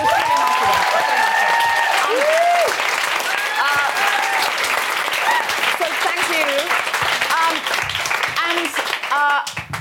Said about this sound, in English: just a big round of applause for the, for the